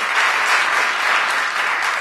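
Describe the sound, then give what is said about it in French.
An audience claps steadily to show who thinks a middle class exists, a dense, even wash of applause that holds at the same loud level for a couple of seconds with no voices standing out. “Ceux qui pensent qu'il y a de classe moyenne, par applaudissement, là.”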